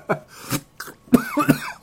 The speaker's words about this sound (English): but yeah, excuse me, that made me yeah, cough there.